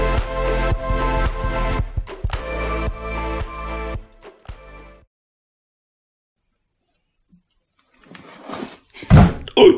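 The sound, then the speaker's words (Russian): A chair gets bumped with loud wooden thunks and a rattling clatter over several seconds, then goes quiet before a brief shuffle and knock near the end. “Пизданул чуть-чуть стул.”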